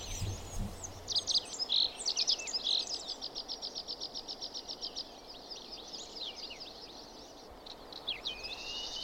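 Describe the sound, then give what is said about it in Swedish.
Water pipits sing from a plateau above, a run of thin, high chirps that speeds into a long even trill of repeated notes, then a few buzzy phrases, over a soft steady rush of background noise. “Nu har vi kommit så högt som man hör vattenpiplärkorna uppifrån platån mm.”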